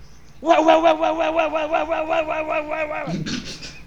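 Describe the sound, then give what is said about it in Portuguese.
A person mimics a dog barking in a quick, unbroken run of about ten loud, yappy pulses, lasting nearly three seconds before a short, lower vocal sound. “Feito um cachorro latindo.”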